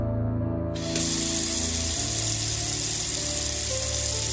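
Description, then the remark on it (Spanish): A bathroom tap turns on and water runs steadily into a sink, a continuous hiss with a low mechanical hum beneath it. “Escuché un chillido breve y después la canilla de la pileta del baño.”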